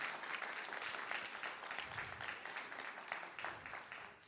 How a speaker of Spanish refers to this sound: Vamos, dar un aplauso al Señor, claro que sí. Give the Lord a hand clap.